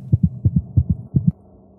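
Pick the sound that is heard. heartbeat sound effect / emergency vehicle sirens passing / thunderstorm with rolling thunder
heartbeat sound effect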